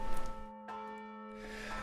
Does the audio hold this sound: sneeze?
no